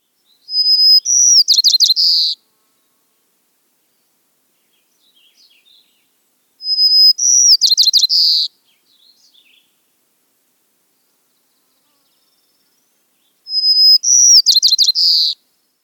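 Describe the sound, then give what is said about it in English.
A White-crowned Sparrow sings three times, each song opening with a clear, steady whistle that breaks into buzzy, jumbled trills, separated by several seconds of quiet. Clear, with no voices. “Our next sparrow song is the White Crowned Sparrow. Take a listen to this song and see how you would describe it.”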